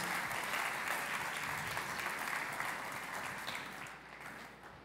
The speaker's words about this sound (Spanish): Vamos a darles un aplauso, por favor.